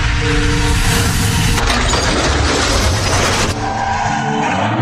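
A car's tires squeal as it brakes hard at 60 km/h on a road with a 50 km/h speed limit, then a loud, sustained crash of impact and splintering debris follows before the noise settles into a rough rumble.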